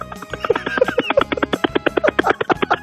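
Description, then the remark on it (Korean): A person vocally imitates a rescue helicopter during a sound-imitation contest on Park Myung-soo's Radio Show, making fast, steady, rhythmic chopping pulses like spinning rotor blades. The imitation is fairly loud, continuous for a few seconds, with no speech. “구조를 하러 가는 헬기인데 아, 구조를 한번 해보겠습니다.”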